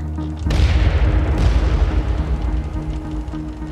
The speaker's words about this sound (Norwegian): Noen fikk ladet kanonene og sendte av gårde et par salver.